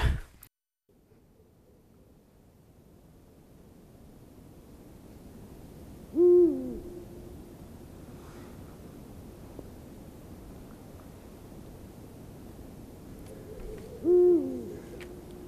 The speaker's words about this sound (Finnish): Luonto Suomen pöllöiltä jatkuu taustalla huhuilee. Lintu, joka on mm. antanut myös nimensä Suomen jalkapallomaajoukkueelle miesten sellaisille, eli huuhkaja.